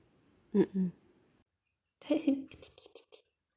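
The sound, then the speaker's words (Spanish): Soft, quick wet lapping as a cat drinks water, a rapid run of small licking clicks. A brief low murmur comes just before it. “No estoy diciendo nada porque está mi gato tomando agua. ¿Escuchas el ruidito de tomar agua?”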